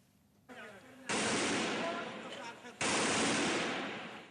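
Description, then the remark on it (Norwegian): Loud bursts of gunfire from heavy fighting between Bashar al-Assad's government forces and the Free Syrian Army in Daraya, just south of Damascus, Syria: two sustained, roaring blasts of rapid shots, the second starting abruptly after a brief dip, with faint voices briefly audible before the first burst. “Lyden av harde kamper i Daraya, litt sør for den syriske hovedstaden i Damaskus.”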